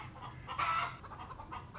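Chickens clucking, a short burst of overlapping clucks with one louder, higher squawk near the middle, over a low steady farmyard rumble. No one speaks.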